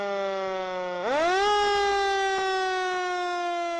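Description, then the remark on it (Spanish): A town fire truck's loud siren holds a low steady tone, then swoops upward in pitch after about a second and sustains a high, buzzy wail, with no voices. “¿Escuchan? Son las sirenas del camión de bomberos del pueblo.”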